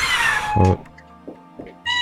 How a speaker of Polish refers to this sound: O, ktoś tu ma coś do dodania chyba? Tak, mój kot przyszedł skomentować tą sytuację.